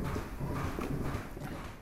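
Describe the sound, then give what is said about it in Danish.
Cow hooves clop steadily on a hard floor as cows walk into a milking stall on a Danish dairy farm to be milked by milking machines, a continuous shuffle of overlapping hoof strikes with no one talking. “Og køerne I kommer her to og en halv gang i døgnet og bliver malket.”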